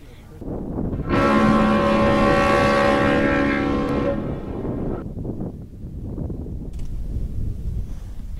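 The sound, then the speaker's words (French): An icebreaker ship heading to Antarctica sounds a loud, sustained horn blast lasting about four seconds over a deep, steady engine rumble that continues after the horn stops. “Euh, moi, je me rends dans, une, dans, dans un territoire de la tribu des euh, et je m'y rends en bateau brise-glace.”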